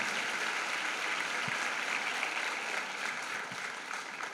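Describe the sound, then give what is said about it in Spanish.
Steady, dense applause from a crowd fills the whole moment, a continuous wash of clapping with no voices standing out, given as praise to the Lord during a sermon. “Dele un fuerte aplauso al Señor por esta promesa que Él tiene para nuestra vida.”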